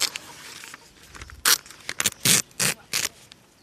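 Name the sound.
paper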